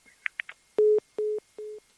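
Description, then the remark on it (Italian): A few quick clicks as a telephone line is put down after a call, then a telephone busy tone: three evenly spaced, steady low beeps, each brief and moderately loud, with no voices present. “eh, metto giù la linea e beh, va dai, apro anche eventualmente se un'altra telefonata magari forse ci sta.”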